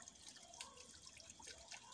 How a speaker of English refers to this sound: I think it's a peaceful place. I can hear the water.